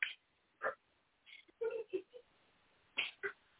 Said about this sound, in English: I know it's something with Skyler's dog, but that nigga's barking.